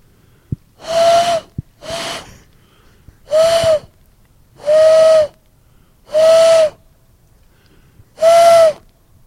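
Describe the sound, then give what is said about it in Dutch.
Six breathy, hollow owl-like hoots blown through hands pressed together and cupped into a fist shape, fairly loud: two short ones in quick succession, then four longer, steadier hoots separated by pauses, with no talking. “Dan moet je je handen zo tegen elkaar doen. En dan een soort van vuistje ervan maken. Dan kan ik een uil doen in het bos.”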